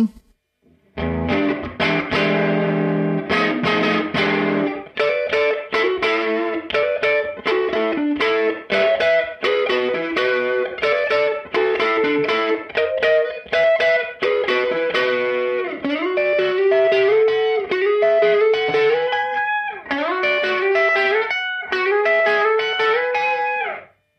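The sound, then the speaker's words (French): An electric guitar on the neck pickup played through a Universal Audio UAFX Woodrow 55 pedal emulating a Fender Tweed amp preamp, strummed chords and melodic lead lines with a warm, slightly overdriven tone, loud with no talking. “Woodrow 55 UAFX Universal Audio : le préampli Fender Tweed de vos rêves”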